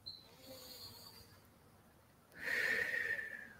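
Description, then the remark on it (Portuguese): A slow, deep, conscious breath taken as a breathing exercise: a soft, airy inhale followed by a louder, rushing exhale, with no talking. “Todos os ouvintes aqui, se quiserem fazer esse exercício agora de fazer uma respiração consciente agora, né?”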